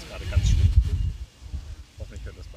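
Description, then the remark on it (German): Wind buffets the microphone outdoors in low, rumbling gusts, strongest in the first second and then easing, with faint voices briefly audible near the end. “Wahrscheinlich hört man auch den Wind.”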